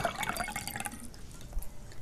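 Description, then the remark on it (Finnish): Cold water being poured into a glass, a brief gurgle and splash of liquid filling during the first second, then trailing off into quiet. “Tosi ihanaa ja kylmää vettä.”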